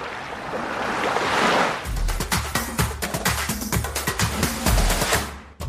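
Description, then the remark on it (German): Sea waves rush and break continuously, a broad roaring wash that swells in the first seconds and then churns with repeated crashing surges, loud, with no voices. “Wenn Sie diesen Podcast hören, hören Sie das Meer rauschen.”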